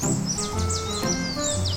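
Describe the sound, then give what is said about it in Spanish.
Birds singing, a quick series of high, sweeping chirps repeating over a steady low hum, with no voices. “Como los pájaros cantando o las hojas cayendo o el viento.”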